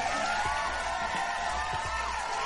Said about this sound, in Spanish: le han dado finalmente su estrellota a mi gordo querido, a mi astro rey, el mismísimo Guillermo del Toro. Un pinche aplauso, me pongo de pie.